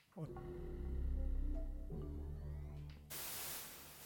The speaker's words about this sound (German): Ja, Rauschen brauche ich jetzt nicht, aber.